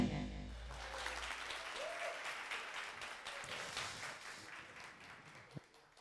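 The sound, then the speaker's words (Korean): A lecture audience at a 3 June 2016 talk by Jung Chung-rae applauds steadily for about six seconds, a dense wash of many hands clapping at moderate volume, with no one speaking over it. “아 박수 소리가 적어요.”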